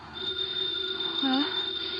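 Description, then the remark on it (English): A house telephone rings with a steady, shrill, high-pitched bell tone that carries on unbroken through the whole moment, fairly loud, with a faint low murmur briefly beneath it. “The phone is ringing.”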